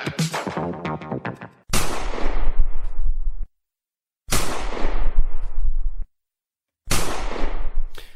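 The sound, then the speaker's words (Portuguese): Three loud gunshots ring out one after another, each with a long echoing tail and a short silence between, following a brief burst of tonal, music-like sound at the start; shots depicting a shooting in Las Vegas in September 1996, after a boxing match. “foi atingido a tiro várias vezes em Las Vegas depois de assistir a um jogo de boxe.”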